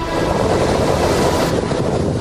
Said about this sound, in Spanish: Huracán